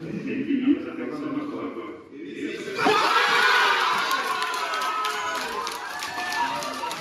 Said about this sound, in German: Klar, der Kopf der Woche ist Elisabeth Bohm-Schneider, die neue Bundesrätin aus dem Kanton Jura, die erste überhaupt. Entsprechend groß war der Jubel in Dölemont.